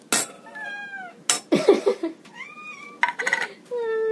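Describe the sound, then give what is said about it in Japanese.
A cat named Ran meows repeatedly for tuna in short, high, wavering calls, several in a row with brief gaps, alongside a few sharp clinks like dishes or a can being handled. “ランちゃん声可愛らしく泣いてもあげませんよカリカリがあるでしょ 残念ながら君たちのではないのですよまあランちゃんあなたがこんなに騒ぐことってめったにないのにねツナパワーですね”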